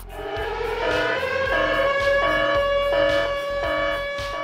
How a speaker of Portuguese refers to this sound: Bom, para tudo. Para, para tudo. Bota uma sirene aí.